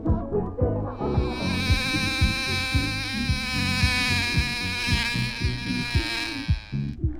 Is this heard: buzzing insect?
yes